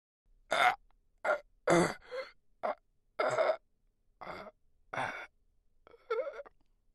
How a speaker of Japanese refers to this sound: 朝7時、いつも通り会社に着くと、事務所の扉の向こうから苦しげなうめき声が聞こえた。なんだろう、尋常でない雰囲気だ。